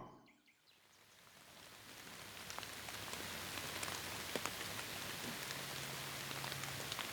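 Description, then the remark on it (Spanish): Steady rain falls and builds from near silence into a dense, hissing patter, with scattered sharper drops tapping and a faint bird call or two. “y al sentir la primera gota en tu cara, comprendes que su silencio se debe a que ha llegado la lluvia.”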